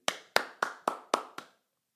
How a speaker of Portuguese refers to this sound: Palmas para Tomás da Cunha.